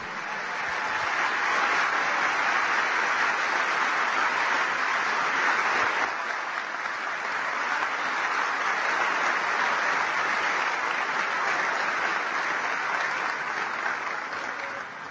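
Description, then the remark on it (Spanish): Sustained, loud audience applause for the AMO Argentina team, with dense clapping that holds steady for about fifteen seconds, a broad wash of hands with no voices standing out. “Así que vamos a darle un fuertísimo aplauso a todo el equipo de AMO y Argentina.”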